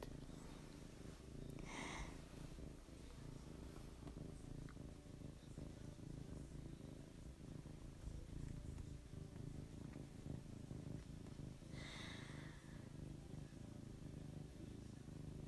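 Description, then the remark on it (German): A cat named Franzi purrs loudly and continuously while being stroked, a steady low rumbling throb that never pauses, with a couple of brief breathy hisses standing out above it. “Franzi schnurrt ganz laut.”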